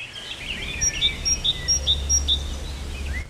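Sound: birds chirping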